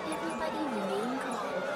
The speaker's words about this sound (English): The crowd panics, trying desperately to flee.